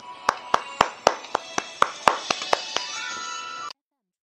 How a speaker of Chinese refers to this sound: 掌声有请。